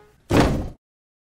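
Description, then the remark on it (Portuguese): A single loud thump of the character Emília punching a table with her fist, a short heavy blow with a brief rumbling decay, alone with no talking. “Gritou Emília, pregando um soco na mesa.”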